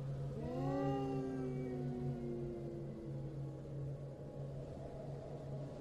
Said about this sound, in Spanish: el llanto de una mujer se escuchó muy cerca de nosotros, casi como si estuviera fuera del coche. Un lamento que me recorrió uno a uno todos los huesos de mi cuerpo.